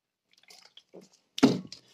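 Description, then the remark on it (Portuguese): Someone drinking water: a few small wet clicks and drips, then a louder, splashy gulp about two-thirds through, with no talking. “E agora passa para beber água, tipo, bebam água, só favor, está bem?”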